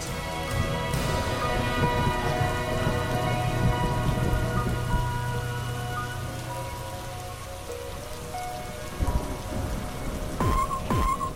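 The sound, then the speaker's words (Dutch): Steady rain falls continuously with a dense hiss of drops, even in loudness, with a few sharper splashes and taps near the end. No one speaks. “Het regent en het heeft geregend.”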